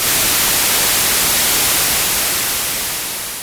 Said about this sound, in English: You are in between two stations you, and you have that static shh. I always wondered why would those people listen to that boring static sound? It's so unpleasant.